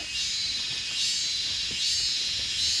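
Cicadas of different species buzz in a steady, dense high-pitched drone that swells louder in slow waves, filling the whole stretch with no voices present.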